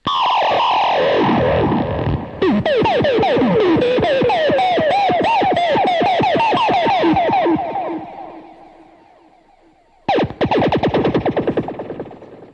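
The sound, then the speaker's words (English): A guitar effects pedal, triggered by plucking the strings of a guitar plugged into it, spits out retro Atari-style video game bleeps: rapid, warbling pitch sweeps and buzzy chirps that fade out before a final loud burst. No one speaks. “It basically, basically gives you like the old Atari sounds.”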